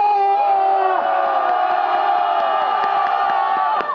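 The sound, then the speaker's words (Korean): A large crowd roars together in one sustained, loud collective shout, answering a call for those who want the decision made to shout in unison, voices blending into a continuous wall of cheering that holds steady for several seconds before tapering slightly at the end. “결심하는 것을 원하시는 분은 함성을 일제히 지내주시기 바랍니다.”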